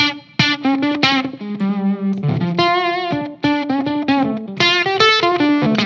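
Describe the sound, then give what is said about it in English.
A distorted electric guitar plays a melodic riff through an amplifier, with sustained, harmonically rich notes and short bends, loud and steady with no voices. “Uh, it, the mini sounds still a mini. little bit darker.”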